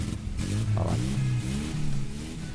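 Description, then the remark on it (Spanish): A car engine turns over and catches, then revs with a rough, wavering rumble that rises and falls, fairly loud, with no voices. “¿Arranca o no arranca? ¿va? A ahí está.”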